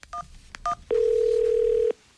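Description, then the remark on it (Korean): Two quick keypad dialing beeps with faint clicks, then a single steady telephone ringing tone lasting about a second, clear with no voices. “여보세요 여보세요 왜 이렇게 전화를 늦, 늦게 받아”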